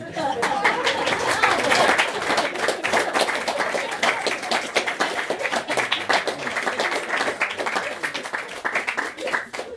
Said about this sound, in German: herzlich vergelt's Gott, der Applaus sei für euch gedacht.